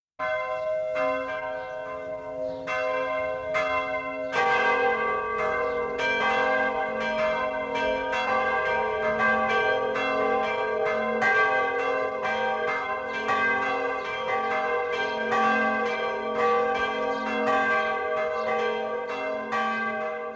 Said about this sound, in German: Es ist 12 Uhr. Das Mittagsläuten kommt heute von der katholischen Wallfahrtskirche St. Marien in Pertolzhofen im vorderen Oberpfälzer Wald.